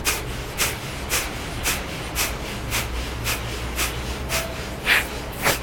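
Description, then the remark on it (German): A rapid series of about ten sharp, forceful nasal exhalations in Kapalabhati breathing, evenly spaced roughly every half second, each a short breathy snort-like burst, with no talking. “dann atmet man nach vorne aus. Man kann es auch mit Kapalabhati oder mit Agnisara machen.”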